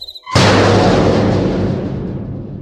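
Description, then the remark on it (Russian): The heavy iron gates of a castle courtyard, overgrown with bindweed, slam shut behind a girl in a story with one loud, sudden crash, followed by a deep booming rumble that slowly fades over the next couple of seconds. No voices. “как ворота позади с грохотом захлопнулись.”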